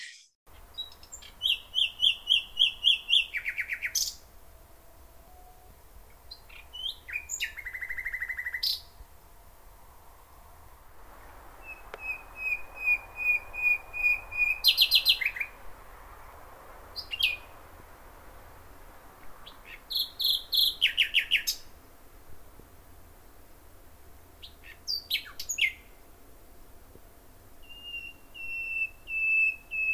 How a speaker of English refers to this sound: So if we find it, take a listen to the common nightingale.